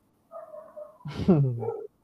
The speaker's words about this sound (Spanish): Denle de comer al perro, está pidiendo a gritos comida.